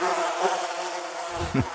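Flies buzz steadily in a dense drone that holds for under two seconds, with a brief low rumble swelling near the end.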